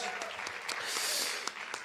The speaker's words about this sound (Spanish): Podemos dar un aplauso, Señor, de gratitud.